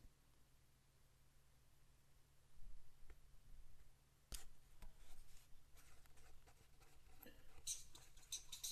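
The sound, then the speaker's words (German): Pens scratch and squeak across paper in quick irregular strokes as quiz players write their answers, quiet, with a faint steady hum underneath and an occasional sharp tap. “Stifte quietschen.”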